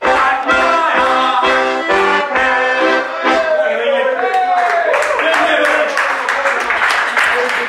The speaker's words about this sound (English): I mean, that's the best applause that anyone has got all night.